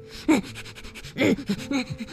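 A hedgehog snuffles and sniffs in all directions in quick, breathy bursts, with a few louder huffs among softer rapid sniffs, no talking.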